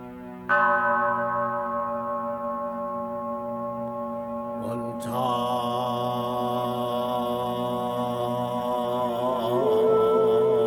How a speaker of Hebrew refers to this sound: מנזר זן. תפילה, פעמון, נשימות עמוקות, כאן ועכשיו.